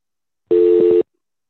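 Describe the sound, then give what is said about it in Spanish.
A single steady electronic telephone tone sounds for about half a second, loud, then cuts off abruptly into silence. No voices are present. “Silenciar el teléfono, por favor.”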